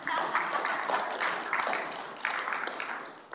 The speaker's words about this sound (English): Yeah, go ahead and clap. That's a good thing.